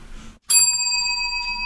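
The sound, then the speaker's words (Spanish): A small bell is struck once, loud, its bright metallic tone ringing on steadily and sustaining well after the strike, with no talking over it. “¿Hoy tocamos el timbre o no sé? Sí, toquémoslo.”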